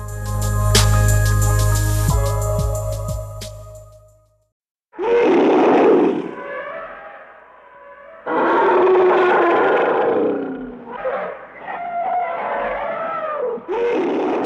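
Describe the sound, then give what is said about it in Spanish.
An Asian elephant calls: a deep, steady rumbling tone, then a short pause and several loud, throaty roaring blasts with rough harmonics, one after another, with no talking. “Soy un elefante asiático, una mole con gran sabiduría y cúmulo de sentimientos.”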